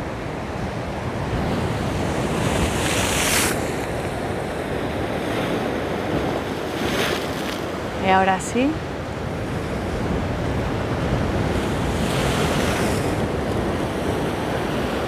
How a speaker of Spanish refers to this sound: mientras escuchas de fondo las olas del mar.